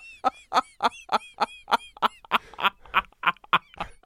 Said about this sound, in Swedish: Alex Schumanns nästa bok läses upp av papegojan, grön ara-papegojan från liksom Tomelilla